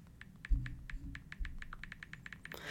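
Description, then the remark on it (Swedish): A rapid, steady run of about twenty crisp little clicks from a phone's keyboard typing sounds, fairly clear over a low background rumble, ending in a short burst of noise. “Och så hör man bara i bakgrunden det här ljudet när någon skriver.”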